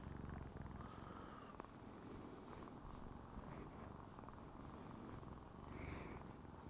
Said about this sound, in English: I'm trying to get the purr noise.